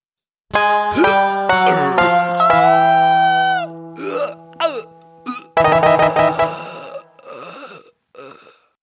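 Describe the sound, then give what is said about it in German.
A short produced intro jingle is played in, bursting in loud with bright sustained tones, quick vocal-like stabs and a few sharp pauses, running about eight seconds before stopping abruptly. “baller nochmal den Einspieler rein.”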